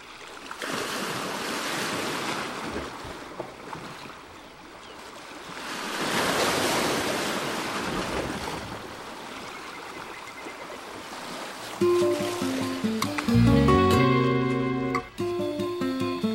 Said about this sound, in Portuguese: ouvindo o batuque das ondas com passo de um coração de pássaro no fundo do cativeiro